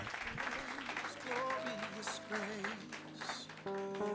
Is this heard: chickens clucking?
no